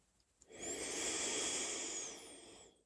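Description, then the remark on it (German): A single long, deep breath, drawn heavily and steadily for about two seconds with a breathy, hissing texture, with no talking. “Und jetzt wird das Atmen noch stärker, tiefer.”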